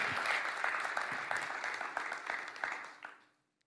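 An audience applauds warmly for a man's personal testimony, many hands clapping in a dense, steady patter that holds for about three seconds before tapering off quickly into silence.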